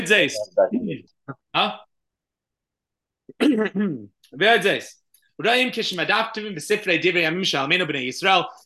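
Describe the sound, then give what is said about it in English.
Someone clears their throat a few times in short, rough bursts, with stretches of a man talking before and after. “I can't clear my throat today.”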